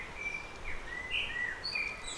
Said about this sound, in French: J'ouvre les yeux doucement tout en profitant du chant des oiseaux des arbres voisins.